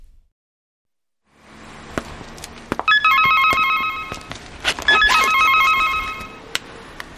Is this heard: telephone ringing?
yes